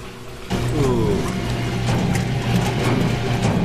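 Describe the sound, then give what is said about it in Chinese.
A washing machine starts up after a short pause and runs steadily, a loud continuous mechanical churn with a low droning hum and faint rhythmic clatter. No one speaks. “嗯，哦，是的，听起来像一个瀑布。 呃，又像是 一台洗衣机。”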